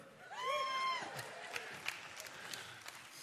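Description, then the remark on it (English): A short burst of crowd cheering for the University of Kansas Jayhawks, who are playing for a national title: a high, sustained whoop rings out over a murmur of voices, followed by scattered claps and shouts as the noise settles. “But some of us are cheering.”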